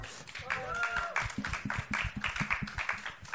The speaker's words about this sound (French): on peut applaudir